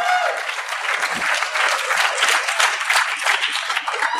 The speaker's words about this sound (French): Cool. Applaudis.